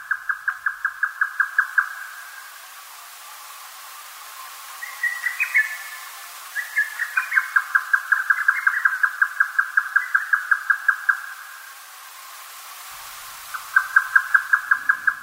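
A grey nightjar at Zaō calls with fast, even trains of sharp, chattering notes, like rapid knife chops, interrupted briefly by a few higher notes before the rhythmic series resumes. No one speaks.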